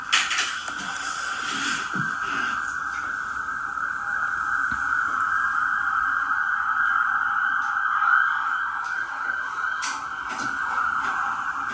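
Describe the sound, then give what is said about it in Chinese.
A police siren outside a window in London wails steadily for the whole stretch, its high tone wavering slightly up and down at a constant loudness, with no one speaking over it. “窗外传来了警笛，嗯，这种事在伦敦也是经常发生的嘛。”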